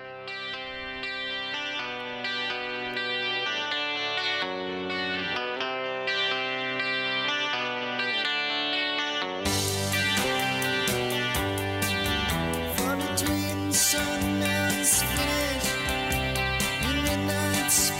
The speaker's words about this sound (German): Wundervoll die zwölfseitige Gitarre, ein Hörgenuss.